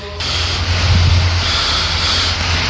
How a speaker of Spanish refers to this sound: Aquí está entrando un coche.